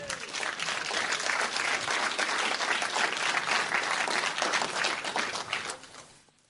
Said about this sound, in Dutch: Geef hem een geweldig applaus.